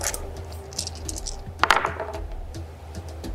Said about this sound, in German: Okay, dann darfst du nochmal würfeln